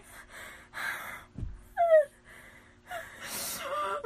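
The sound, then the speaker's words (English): A voice imitates Darth Vader's raspy mask breathing: several slow, hissing inhales and exhales, broken up by a short thump and a brief squeaky wheeze partway through. “Romeo, I am Darth breathing, your father.”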